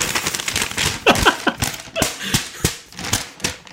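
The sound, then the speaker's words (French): A sheet of paper from an opened letter is rustled and shaken, producing a run of irregular crisp crackles and snaps for several seconds with no one talking. “voilà, c'est pour vraiment montrer que c'est du papier.”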